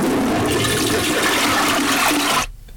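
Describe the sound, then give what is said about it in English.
A loud toilet flush: a steady roar of rushing water for about two and a half seconds, then it cuts off abruptly into near silence. No one speaks. “Flush that dumbass shit down the toilet.”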